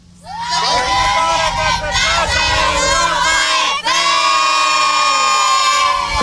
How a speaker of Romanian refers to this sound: Gașcă veselă pe plaja Europa FM, unde este cald, soare și bine.